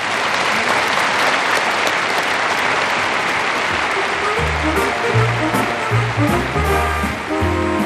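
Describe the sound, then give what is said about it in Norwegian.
Sustained audience applause, a dense loud clatter of many hands clapping steadily throughout, with low musical tones starting to come in underneath toward the end. “Det fortjener hun klapp for.”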